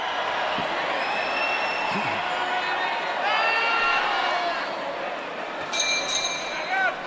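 A large arena crowd at a boxing match between Ángel Ayala and Lalo Camarena roars steadily while doing the wave before the fourth round, with swelling waves of cheering and scattered high whistles rising over the dense, continuous din.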